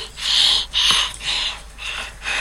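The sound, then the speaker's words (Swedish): A child pants heavily and rhythmically right into the microphone, about five loud, breathy huffs in quick succession with short gaps between them and no talking. “Du vill bara flåsa.”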